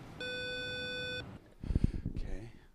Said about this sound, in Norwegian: Men uansett så tar vi og ringer på, og så ser vi hva som skjer.